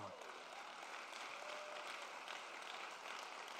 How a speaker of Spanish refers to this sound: Si tú lo amas, dale un aplauso fuerte.